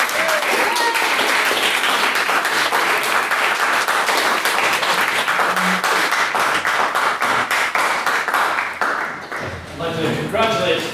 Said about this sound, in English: I would also like to ask that you all give a round of applause for our main speaker this evening,